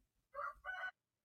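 rooster crowing

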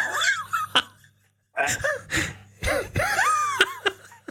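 coughing fit

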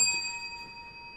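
bell ringing

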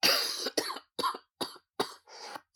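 cough

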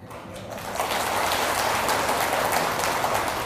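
audience applause

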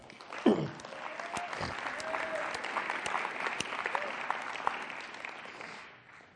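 audience applause

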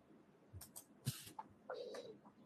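cat meowing

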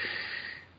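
sneeze

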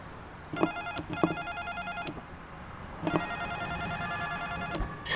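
doorbell ringing repeatedly

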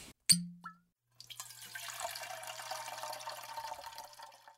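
drink being poured

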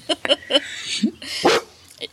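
large dog barking

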